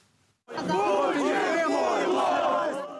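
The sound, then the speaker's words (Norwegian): A crowd of protesters outside the parliament in Kyiv, Ukraine, protesting the authorities' handling of the situation in the east of the country, shouts loudly and continuously, many voices overlapping in a dense, sustained roar that starts abruptly after a brief quiet moment and holds steady to the end. “En gruppe har tatt oppstilling utenfor parlamentet i Kiev for å protestere mot myndighetenes håndtering av situasjonen øst i landet.”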